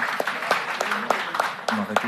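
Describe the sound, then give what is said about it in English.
A group claps in a steady, dense patter for a team receiving its Sky Navy kit, with a few sharper individual claps standing out, and a voice murmurs faintly beneath the applause near the end. “A round yes. of applause, please.”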